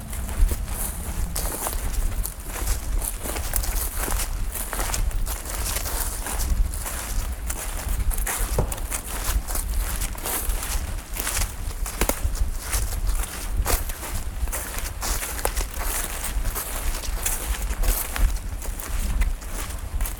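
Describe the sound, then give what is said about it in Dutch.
Steady footsteps crunch and rustle over leafy, uneven ground at a walking pace through a small grove of black alder, fairly loud against a constant outdoor background hiss. “nu lopen we eigenlijk in het bosje van, eh, ja, van, die, van die zwarte els.”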